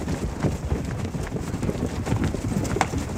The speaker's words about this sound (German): Am Ende einer großen Freifläche steht ein knappes Dutzend Pferde. Sie tragen eine auffällige Stehmähne und ihr Körperbau ist etwas kleiner und gedrungener als bei üblichen Reitpferden.